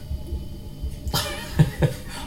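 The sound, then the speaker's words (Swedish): A three-to-four-month-old baby babbles, making three short, breathy vocal bursts in the second half after a quiet, low rumbling start. Nobody speaks. “Nej, det där är det hör du, lilla bebisen som liksom jollrar där.”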